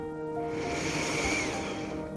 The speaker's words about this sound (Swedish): Ta ett sånt där djupt andetag. Andas in djupt genom näsan.